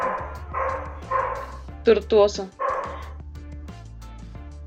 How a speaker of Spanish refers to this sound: Dale, perdón por los perros que se escuchan.